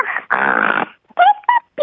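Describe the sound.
A child imitates a pig from the cartoon Peppa Pig with rough, nasal snorting grunts, one short and one long and loud, followed by three brief, higher-pitched voiced squeaks.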